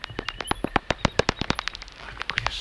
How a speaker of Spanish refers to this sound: Si escuchamos la conversión del ultrasonido a lo audible, oímos la campana distorsionada ah, y esto es lo que oye el murciélago.